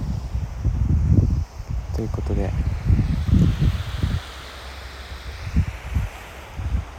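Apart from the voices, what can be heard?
wind and ocean waves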